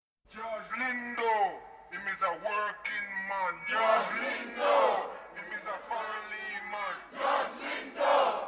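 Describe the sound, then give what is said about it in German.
A large protesting crowd chants together in loud, rhythmic bursts, answering a lone man's voice addressing them, the name George Lindow heard again and again, the call-and-response repeating several times with short pauses between phrases. “Die antwortet ihm im Sprechchor.”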